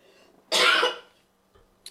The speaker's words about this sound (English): Okay, you all right over there? Got a little coffee cough. Huh? so, went down the wrong throat. Uh, okay. The wrong pipe.